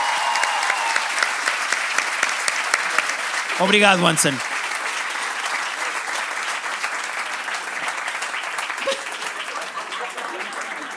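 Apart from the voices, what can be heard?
audience applause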